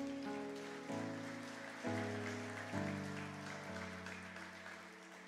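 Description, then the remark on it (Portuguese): A crowd applauds the Lord after a prayer, clapping steadily in a dense, sustained wash of applause, while sustained keyboard chords shift underneath every second or so. No voices stand out. “E você aplaude o Senhor por esta palavra.”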